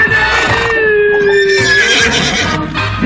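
A horse neighs loudly, one long shrill whinny that wavers in pitch for about three seconds before trailing off, with low rumbling underneath and no one speaking.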